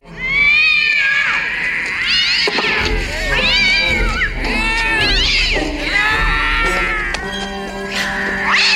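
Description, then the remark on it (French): Loud, overlapping stock cat meow and yowl sound effects cry out almost continuously, several rising and falling wails layered over a busy, crowd-like background din. “c'était des tortues ninja qui faisaient des bruits de chats”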